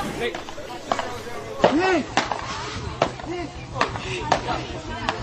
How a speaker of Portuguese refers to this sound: É, aí para você aí que tá ouvindo a gente, de repente você tá ouvindo no fundo as bolinhas aí, as raquetes. Então é o vai fazer parte da nossa trilha aqui.